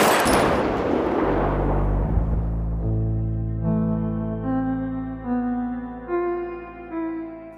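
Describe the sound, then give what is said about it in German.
A single sharp gunshot cracks loudly in an audio drama, its echo fading over a couple of seconds as sustained, swelling musical tones rise and carry on alone. No voices. “Es ist jetzt gar nicht so viel, was total auffällig als oh, da ist der Ton natürlich abgesehen von dem Schuss ähm, zu hören war, aber jede Sache ist einfach wichtig.”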